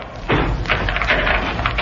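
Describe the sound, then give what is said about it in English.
A steel door is opened by Ivan: a heavy thud is followed by a broad, rough scraping rumble that carries on for over a second, with a few bumps along the way and no voices. “Ivan, open the door.”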